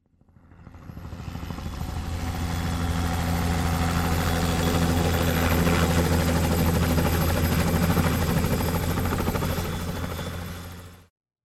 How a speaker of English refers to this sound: Whoa, that helicopter buzzed by really close